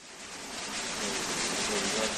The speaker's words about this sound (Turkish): Günlerdir aralıklı sağanak yağışların İzmir'de etkisi altında. Özellikle Bornova'ya vuran aşırı yağışlar caddeleri, sokakları göle çevirirken bir kişinin sağanak altında şampuanla duş aldığı anlar kameraya böyle yansıdı.